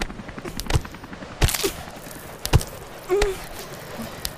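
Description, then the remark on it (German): Climbers' ice axes bite into a high frozen wall in about four sharp strikes at an uneven pace, each a crisp crack with brief icy scraping between blows, knocking loose chunks of ice. “Aua, Chiara, kannst du aufpassen, wo du hinstichst? Du hast mich mit einem Eisblock erwischt.”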